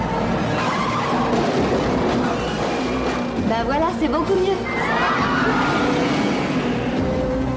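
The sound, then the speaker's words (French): A car chase scene from the film John Wick 4 roars with revving engines and a burst of screeching, skidding tires midway, with crunching metal, all loud and dense, while a person talks over the action. “je sais pas combien de voitures ils ont ah, pris le début de américain, ah, c'est de la tôle, c'est de la tôle.”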